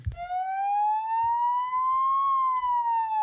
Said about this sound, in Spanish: La ambulancia.